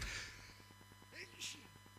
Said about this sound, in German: Oh, ich muss gleich niesen.